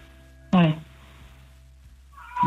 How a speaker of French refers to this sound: Tiens, il y a un petit chat derrière. Oui, oui. c'est l'heure de, c'est l'heure de lui donner à manger. J'ai l'impression qu'il réclame.